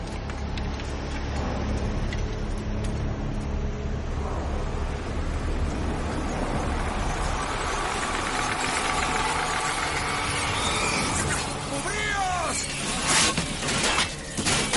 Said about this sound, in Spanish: lo lejos una lluvia de flechas se aproxima estrepitosamente.